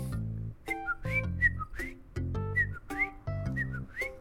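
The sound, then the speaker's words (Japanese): A person whistles an imitation of a Chinese bamboo partridge call, a loud, rising, insistent phrase repeated three times in quick succession with short pauses between. “っていう鳴き声なんですねこれだいぶ僕の中で自信作でさあのー、江戸屋猫八のね2代目か3代目になれるんじゃないかというくらいすげえ似てるんですけどね、うん、僕の中ではねこれがあのちょっと濃いちょっと濃いに聞こえるらしいですよ”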